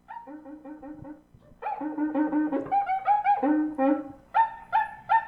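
A cuica friction drum squeaks out a rhythmic run of nasal, pitch-bending yelps that rise and fall, playing alone and growing louder and higher toward the end, almost like a small dog barking.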